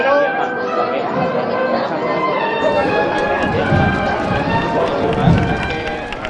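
Street sounds from a Holy Week procession in the Alcantarilla neighbourhood, on Calle Llana: a steady murmur of crowd chatter mixed with shuffling footsteps, with faint sustained tones running underneath at an even, moderate loudness.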